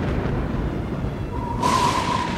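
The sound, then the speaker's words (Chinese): Rolling thunder: a deep, steady rumble throughout that swells near the end into a louder, harsher roar with a brighter crackling edge. No voices. “可是，在雨还没降下之前，一阵大风扫过田野，接着雷声隆隆。”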